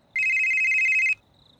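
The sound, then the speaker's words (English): A flip phone rings once in a single loud, bright electronic trill lasting about a second, then cuts off, leaving quiet background hiss. “And then I flip open the phone and answer it.”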